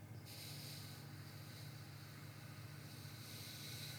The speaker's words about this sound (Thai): ใช้ปากสี่วิ หายใจออกสี่วิทางจมูก หายใจเข้าทางปากเหมือนเดิมหายใจออกทางจมูก